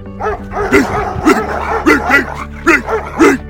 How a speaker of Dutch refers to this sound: En ontdek waarom deze honden zo boos worden.